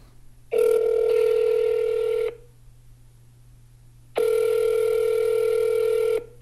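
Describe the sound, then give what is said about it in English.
A phone line rings twice through the earpiece on a call to a phone number found in Oklahoma listings, two long steady electronic ring tones separated by a couple of seconds of quiet, with a faint hum underneath and no one talking. “I found a phone number.”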